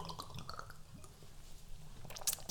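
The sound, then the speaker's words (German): Quiet, wet sipping and swallowing as people drink small shots of St. Hubertus herbal liqueur, with scattered soft liquid clicks and mouth sounds and no talking. “wir denken an euch und trinken jetzt hier so einen wunderschönen St. Hubertus-Tropfen.”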